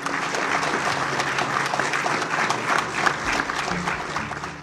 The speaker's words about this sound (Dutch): Hij werd onmiddellijk onthaald op een enorm applaus.